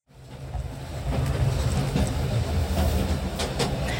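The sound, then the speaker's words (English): A train rolls along its rails with a steady, heavy low rumble that swells in at the start and holds, a few faint rattles and clacks riding on top. “But there was an instance that was just so timelessly American in which she was sitting on a train in her uniform, minding her own damn business.”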